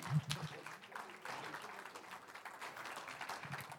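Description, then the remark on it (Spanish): An audience at a church service applauds the Lord steadily, a dense wash of many hands clapping at once for a few seconds, fairly soft, with a brief voice at the very start. “Un aplauso al Señor.”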